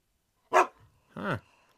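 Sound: dog barking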